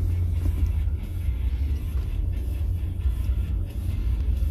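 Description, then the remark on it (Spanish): Steady, heavy low rumble of a car driving in heavy traffic, with continuous engine and road noise filling the whole stretch and no clear voices over it. “Oye, el tráfico está engacho gacho.”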